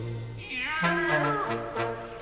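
A cat lets out one drawn-out, wavering meow, clear, rising and falling in pitch over a low steady hum in the background.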